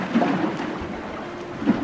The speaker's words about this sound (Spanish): De pronto se desató una tormenta. El viento soplaba tan fuerte que las olas se metían en la barca y ésta empezó a llenarse de agua.